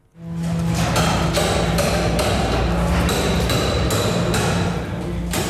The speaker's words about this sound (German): Es wird geschafft auf der Baustelle beim Bahnhof Winterthur heute Morgen.